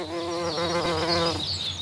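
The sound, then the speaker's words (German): Bees buzz in an apple orchard, a steady droning hum with rising and falling pitch as they fly about, continuous for the whole moment with no voices. “Dafür sind die Bienen ganz wichtige Mitarbeiterinnen unbezahlt und ganz ohne Gewerkschaftsvertretung.”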